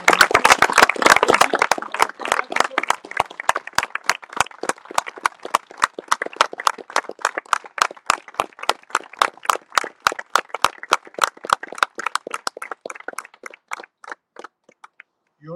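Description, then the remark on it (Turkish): A crowd applauds at a memorial for ecology activists Ali Ulvi and Aysin Büyüknohutçu, starting as dense overlapping clapping and thinning over about fifteen seconds into scattered, increasingly distinct claps that fade toward the end. “Arkadaşlar Ali Ulu'ya, Aysin Büyük Nohutçu'yu bence büyük bir alkışı hak ettiği için ekoloji mücadelesinde verdikleri azimden dolayı alkışlayarak sadece uğurlayalım diyorum.”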